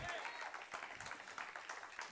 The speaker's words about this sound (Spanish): El estadio de lo que es, vamos, dale un aplauso a Cristo. ¿Cuántos dicen amén?